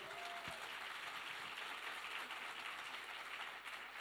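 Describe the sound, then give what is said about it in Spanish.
An audience applauds the Lord steadily, a dense, even wash of many hands clapping that holds at a constant level for the whole stretch, with no voices standing out. “¿Podríamos darle un aplauso al Señor a lo mejor por todo lo que está haciendo?”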